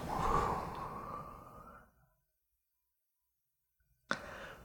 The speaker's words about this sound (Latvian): Um, atkal aiz, aizvērtām acīm, uh, dziļu ielpu. Un izelpu.